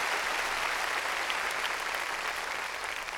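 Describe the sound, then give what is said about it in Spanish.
Loud, sustained clapping from many hands, applause given to the Lord during a sermon, a dense steady wash of applause that holds its level for the whole stretch without pauses or talk over it. “Démosle palmas fuertes, hermano, a nuestro Señor.”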